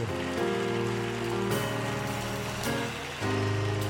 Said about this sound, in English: Clap those hands, everybody.